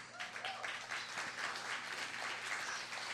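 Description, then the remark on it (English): A crowd applauds steadily for about three seconds, a dense wash of many hands clapping at an even, fairly loud level with no talking over it, as an audience welcomes the next performer, an artist. “All I have to say is she's an artist and like applause.”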